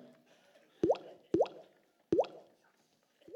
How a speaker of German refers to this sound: Der erste Regentropf kam schon. Die nächsten Regentropfen.